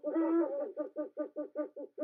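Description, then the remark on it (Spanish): An owl gives a longer opening hoot followed by a quick, steady run of short hooting notes, fairly loud, with no other sounds around it. “Oye, mira, mira, un búho.”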